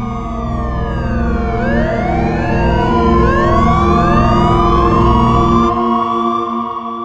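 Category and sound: vehicle, police car sirens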